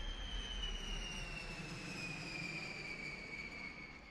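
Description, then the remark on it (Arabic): An Air France jet airliner arriving from Rome roars steadily as it comes in to land at Lod Airport, Tel Aviv, in May 1972, its engines whining with high descending tones over a deep continuous rumble, loud for the whole stretch. “تهبط بهم جميعا طائرة الخطوط الجوية الفرنسية القادمة من روما يصل الثلاثة مطار اللد في تل أبيب بن كوريون”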